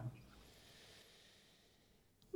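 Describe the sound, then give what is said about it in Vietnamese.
A slow, airy deep breath drawn in and let out as a balanced-breathing exercise, soft and steady with a faint hiss, ending in a brief sharper puff. “hơi thở cân bằng đó là cái sự cân bằng của việc là mình hít vào sâu và thở ra ừ.”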